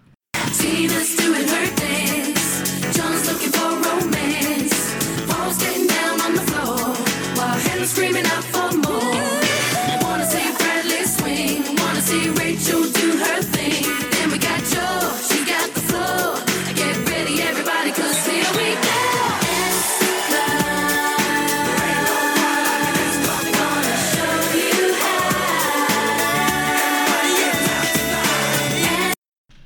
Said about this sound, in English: So that was a song